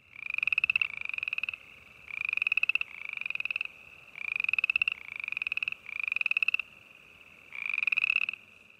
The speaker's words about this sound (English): Maybe it's the boreal chorus frog.